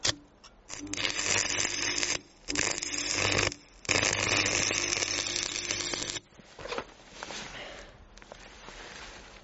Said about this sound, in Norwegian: Det vil jeg påstå er en vellykka sveising. Den holder sikkert i flere timer. Minst.